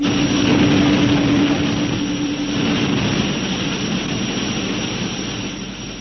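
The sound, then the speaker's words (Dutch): A loud, steady roar of spaceship engines at full power fills the whole stretch, broad and rumbling with a low hum running through it, easing off slightly toward the end. No voices. “Alle motoren volle kracht vooruit.”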